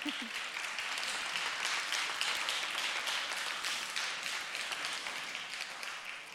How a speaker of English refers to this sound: Thank you very much. I wasn't expecting a round of applause so early in the evening, but that was very welcome. Thank you.